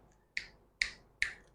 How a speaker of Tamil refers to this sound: சத்தம் நல்லா கேட்குது இல்லை இப்போ இந்த மாதிரி சத்தம் கேட்கக்கூடாது அப்படின்னா சண்டிகேஸ்வரர் சண்டிகேஸ்வரர்னு ஒருத்தர் இருக்கார் அவர்கிட்ட இப்படி இப்படி சொடக்கு போட்டு ஏன்னா இந்த சத்தம் கேட்டால் தான் அவர் திரும்பி பார்ப்பாராம்